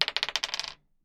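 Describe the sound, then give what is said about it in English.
A twelve-sided die is rolled on a table for initiative in a tabletop role-playing game, clattering in a quick run of about a dozen bright, tumbling clicks that speed up and fade within a second, with no talking; it lands on two. “it's a D12 difficulty for everything. Players roll for their actions”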